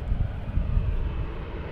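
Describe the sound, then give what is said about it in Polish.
A low, steady rumbling drone of an airplane flying overhead near an airport by the Potomac River, holding a fairly even loudness throughout with a slight gusty, windy texture as the wind blows, and no voices. “O, troszeczkę wiatr zawiał i znowu coś leci”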